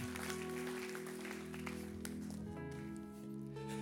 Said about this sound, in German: Komm, wir geben einen Applaus für den Empfänger, für den Blumenstrauß.